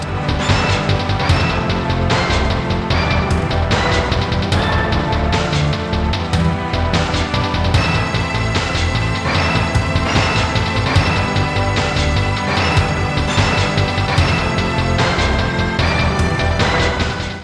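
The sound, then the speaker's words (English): Loud, dense orchestral music from a Kirby video game soundtrack plays without pause, full of clanging percussive hits and sweeping brass-like swells that give it a bombastic, overly dramatic epic feel, with no voices. “Because it's like this clanging song that goes into this like over dramatic, un Kirby like epic.”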